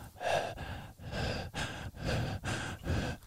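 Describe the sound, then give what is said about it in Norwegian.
A voice imitates heavy breathing, with about six loud, rhythmic, rasping in-and-out breaths in quick succession and no speech. “Det er pusten min i nakken din.”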